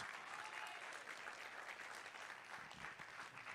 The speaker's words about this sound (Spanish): Vamos, a ver un aplauso. Eso merece un mejor aplauso.